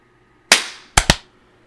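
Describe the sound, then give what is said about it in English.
A TNT clap sound effect: three sharp, bright cracks, one loud snap with a short ringing tail, then two quicker pops close together, with no voices. “Dude, that was TNT clap on 16.”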